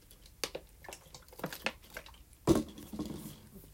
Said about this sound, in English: So let me take a water break right here.